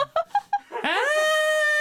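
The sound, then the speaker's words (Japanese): A voice imitates a papillon dog whining: three short, pitched yelps followed by one long, high, drawn-out whine that rises and holds, loud. “かわいいパピヨンパピヨンっていういいんだよこれ見て見てそのパピオンも。ねねねみたいな泣いてるし、みたいなお散歩か今日お散歩かみたいなやってますよね”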